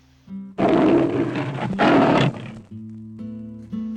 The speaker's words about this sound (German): Noch einmal dreht sich die große gelbe Katze zu ihnen um und zwinkert freundlich mit den Augen. Dann lässt sie ein beeindruckendes Brüllen ertönen und zieht ihres Weges.